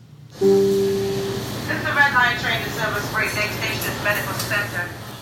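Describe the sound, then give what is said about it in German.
A steady low rumble of a crowded subway train in motion during a morning commute to work around 8:15, with a brief harmonic tone at the start and overlapping chatter from many passengers filling the car throughout. “Dieses Geräusch höre ich in der Regel so gegen 8.15 Uhr, wenn ich mit der überfüllten U-Bahn zur Arbeit fahre.”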